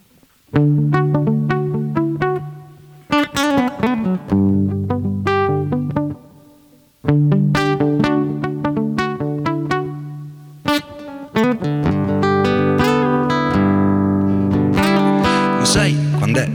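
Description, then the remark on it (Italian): An upbeat music track from part 1 of an album plays loud and full, with bright harmonic instruments and a steady driving rhythm, briefly dropping out between sections before surging back in. “Facciamo sentire un altro brano contenuto nella parte 1, diciamo che è il momento up della serata questo,”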